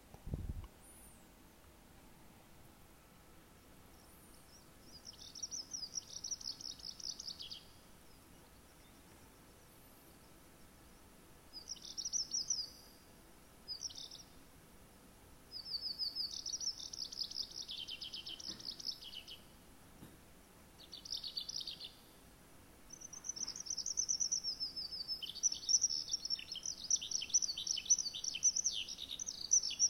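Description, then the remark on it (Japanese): A Eurasian skylark sings in long, bubbling, rapid bursts of high warbling trills, with short pauses between phrases and a continuous stretch toward the end, alone over faint background. “この鳥はですね、ヒバリと言います。ヒバリ。”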